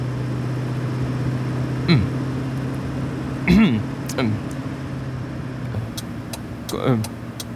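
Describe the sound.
Steady low engine drone and road rumble inside a moving taxi driving to the train station, with a few brief creaks and clicks rising above the constant hum, and faint voice-like murmurs in the cabin.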